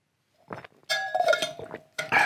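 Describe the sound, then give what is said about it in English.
Glass clinking and clattering as someone gets a drink of water, in a few short bursts, with bright ringing tones that hang briefly after the louder knocks, moderately loud with no one talking. “Sorry, I need a drink of water then.”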